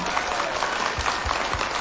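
A crowd claps steadily, a dense, sustained wash of applause filling the space at an even level from start to finish, with no voices standing out.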